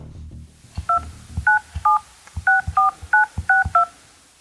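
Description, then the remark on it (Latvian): Telephone keypad dialing to call a source with access to a court-ruling database: a quick, uneven run of about eight short two-tone beeps, each paired with a soft button click, with no voices. “Piezvanīju avotam ar pieeju tieši spriedumu datubāzē.”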